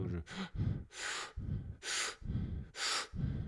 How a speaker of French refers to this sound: ça peut être par exemple de se concentrer deux secondes sur la respiration et puis de faire quelques inspirations très très profondes et en même temps mm. de regarder comment le cœur change.